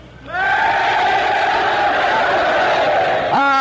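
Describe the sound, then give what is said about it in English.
A crowd of soldiers at a Christmas party, broadcast on the NBC Radio Network on Christmas Eve 1943, shouts greetings in unison, one loud sustained roar of many voices lasting about three seconds, then rising into a fresh burst at the end. “Would you like to shout your greetings to everyone listening in?”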